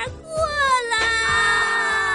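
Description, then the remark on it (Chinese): A person cries in a sustained, wavering wail, the high-pitched voice sliding and trembling with a few sobbing catches, loud and continuous throughout. “哎，怎么又哭了？”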